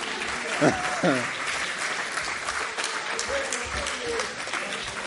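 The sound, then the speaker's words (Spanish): An audience breaks into steady applause, a dense wash of clapping that holds for several seconds, with a few voices calling out briefly over it, congratulating an audience member who correctly identified a plant as an almond tree. “Un aplauso”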